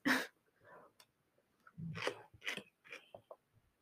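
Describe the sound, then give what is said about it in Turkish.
Quiet mouth noises of someone eating yogurt: a handful of irregular wet smacks and chewing sounds with short pauses between them, and no talking. “Ağzında yemek varken konuşma.”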